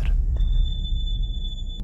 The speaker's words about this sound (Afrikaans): Vreemd, die rem het geskree. Nou nie wat mens verwag van 'n feitelik splinternuwe kar nie.